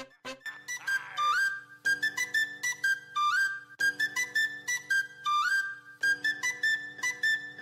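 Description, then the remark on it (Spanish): Upbeat instrumental song intro with a bright, whistle-like lead melody riding over steady, punchy beats, loud and up front, with no singing or talking yet. “Perfecto, pues vamos a escuchar rápidamente una canción y regresamos.”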